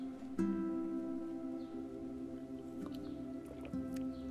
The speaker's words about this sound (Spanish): le doy un sorbo a mi café porque ¿qué sería de este podcast sin café?